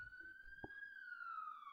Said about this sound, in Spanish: Pasó una ambulancia.